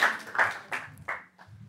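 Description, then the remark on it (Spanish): A handful of separate hand claps ring out at an uneven pace, moderately loud, like a brief, thin round of applause with no talking over it. “Gracias, un aplauso.”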